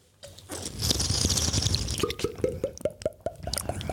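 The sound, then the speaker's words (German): Liquid sounds of people drinking in a studio: a wet, rushing pour gives way to a quick series of rhythmic gulps or glugs, like someone drinking steadily, with no talking. “Für die Hörer, wir trinken gerade.”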